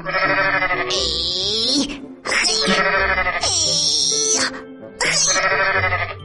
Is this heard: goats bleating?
yes